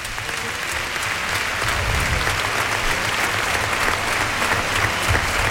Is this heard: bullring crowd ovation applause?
yes